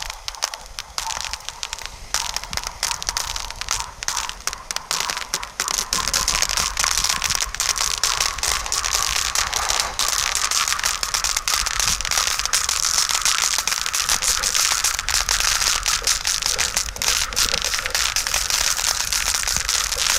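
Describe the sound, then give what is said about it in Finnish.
Thin ice crackles and snaps under ice skates as the ice thins, in a dense, nonstop barrage of sharp cracks, loud, with a faint pitched ringing that slowly climbs higher over the twenty seconds. “Kuunnelkaa tarkkaan tätä jään ääntä, miten se eh, taajuus nousee korkeammalle tasolle, kun se jää ohenee ja niitä halkeamia lähtee tulemaan tosi paljon siinä luistimien alla.”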